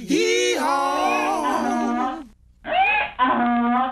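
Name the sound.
donkey braying sound effect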